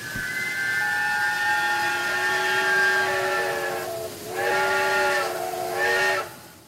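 A steam train whistle blows long and loud with a steady harmonic tone, dipping briefly before two more short blasts, over a constant background hiss of steam.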